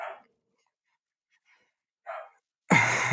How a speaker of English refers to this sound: I have dogs all over the house right now. They are going fucking crazy right now.